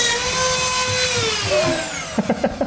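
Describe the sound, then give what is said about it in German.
A high-pitched, drill-like whine rings out steadily, then its pitch slowly sinks as the motor winds down, followed by a few quick clattering knocks near the end. “Ich dachte nur, das klingt wie beim Zahnarzt.”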